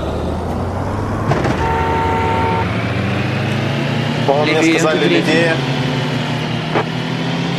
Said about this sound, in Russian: То есть звук посередине машины, мотора.